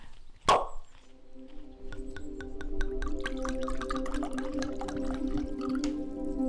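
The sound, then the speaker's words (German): A sharp clink, then wine pours steadily into a glass for a friend arriving for a birthday, for several seconds, with rapid glugging pulses over a ringing, sustained tone. No one speaks. “Stell das Velo an, ich schenke dir schon mal ein Glas Wein.”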